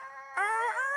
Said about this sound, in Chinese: 那是公鸡吧？